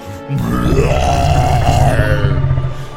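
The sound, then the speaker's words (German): A brutal scream of a large, bestial monster, likely voiced by a person: one loud, sustained, low guttural roar with a rough, belching growl, lasting nearly three seconds before trailing off, with no speech. “Und plötzlich steht vor euch ein großes, bestialisches Monster, das einfach nur noch einen brutalen Schrei auslöst.”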